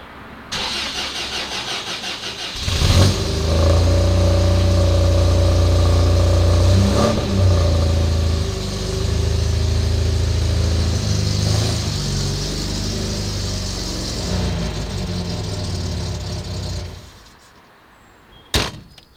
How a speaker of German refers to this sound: Michael hat gerade sein Auto aus der Garage gefahren. Ein grüner MGB von 1969.